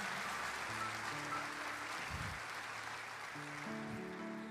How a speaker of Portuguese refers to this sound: Você pode dar uma salva de palmas para esse casal?